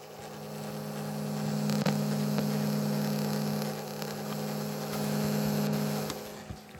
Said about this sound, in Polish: Teraz nagrałem szum mechanizmu. Ok, wyłączę proszę Państwa, bo jeszcze naprawdę się to rozpadnie i będzie niefajnie.